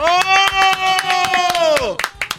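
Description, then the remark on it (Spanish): Steady, rhythmic hand claps, about four per second, ring out over a long, sustained voice holding a single pitch that slides downward, then a few sharper claps finish. “No, déjele aplauso.”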